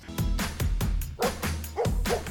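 A dog barks repeatedly in a quick, loud series of about seven deep woofs, fairly steady in rhythm, with no talking.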